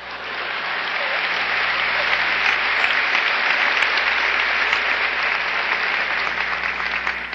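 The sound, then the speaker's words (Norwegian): Sustained applause from a large audience fills the room, a dense, steady clatter of many hands clapping at once, loud and even throughout with no voices breaking through. “It's premature, your applause, you will soon know why.”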